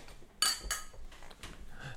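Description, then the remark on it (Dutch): Glasses clink together in a toast: two bright, ringing chimes in quick succession, followed by a few fainter, lighter taps. No one speaks. “Zullen we nog één keer gaan klinken, jongens?”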